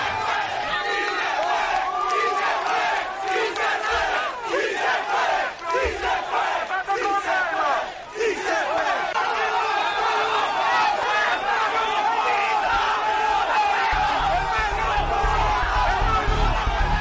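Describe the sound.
A dense crowd of protesters in Caracas, Venezuela, shouts and chants in unison at the police, voices rising and falling in loud rhythmic bursts over a constant roar of yelling and babble.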